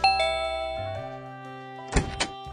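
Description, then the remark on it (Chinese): An electronic doorbell chimes a sustained two-note ding-dong, the second tone lower, fading out before two brief, sharp knocking thuds. No one speaks. “将手机揣进了兜里，按响了门铃。”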